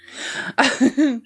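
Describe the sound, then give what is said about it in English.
A sneeze: a long breathy intake builds up, then a sudden loud explosive burst, followed by two short voiced sputters as it trails off. No one speaks. “Oh, bless you.”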